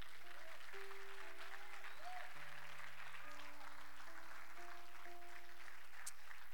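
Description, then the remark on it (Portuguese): An audience claps steadily in a dense, sustained wash of applause for Jesus, while sustained keyboard or organ notes hold beneath it throughout. “Então aplauda Jesus por isso.”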